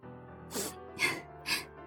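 Three quick, airy sniffs, evenly spaced about half a second apart, each a short hiss of breath through the nose, moderately loud against a quiet, steady background with no talking.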